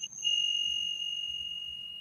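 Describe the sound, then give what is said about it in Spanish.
A single meditation bell is struck during a guided mindfulness meditation and rings out with a clear, sustained high tone that hangs in the air and fades very slowly, heard alone without any talking. “Ahora vas a escuchar el sonido de las campanas.”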